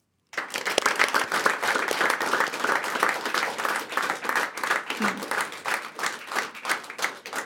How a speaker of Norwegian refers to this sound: Gi dem en varm applaus.